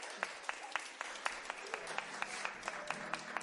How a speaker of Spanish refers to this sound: Aplauso fuerte, fuerte, con muchas ganas para ella.